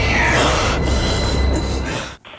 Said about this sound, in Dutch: Ja, uit de Matrix. Ik vond dat zo, uh, zo mooi. Als, als Neo bijna voor de metro geflikkerd wordt.